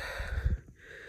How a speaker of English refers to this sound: where I said I don't understand um, and all the sniffling and stuff.